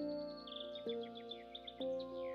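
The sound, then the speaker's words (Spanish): Birds sing in a steady stream of quick, high chirps and trills, set against a soft, sustained musical drone that swells twice. No one speaks. “Puedes escuchar el canto de los pájaros y algunos insectos revoloteando cerca de ti.”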